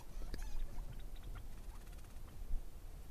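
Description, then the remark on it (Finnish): Degus give small, high squeaking chirps, a few scattered peeps and short trills, faint, over a steady low rumble of background noise, a little like tiny birdsong. “Nyt sieltä kuuluu jotain. Tuollaista ihan pieni niin kuin vinkumista.”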